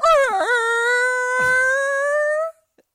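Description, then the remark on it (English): A person drags out a long, loud, whale-like moaning howl with a warbling dip at the start, rising slightly in pitch and holding steady for over two seconds before cutting off abruptly. “like if a whale were to were to orgasm. That's what it sounded okay, like.”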